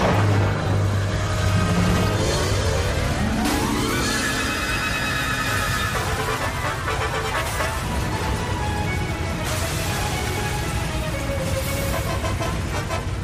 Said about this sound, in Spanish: De pronto todo se puso oscuro y empezó a rugir un viento horrible. ¡Deprisa! ¡Viene un ciclón!